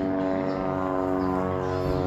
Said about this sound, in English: and as a plane passing by